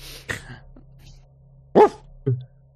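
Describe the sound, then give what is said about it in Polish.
A dog barks twice, short sharp yaps close together near the end, after a quieter burst earlier on; a low steady hum runs underneath throughout. “Odpowiedział ci pies.”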